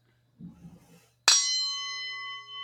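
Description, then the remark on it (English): A gong is struck once, loud, and its bright metallic tones ring on steadily to the end. Soft handling noises come just before the hit. “No, don't bring the gong back.”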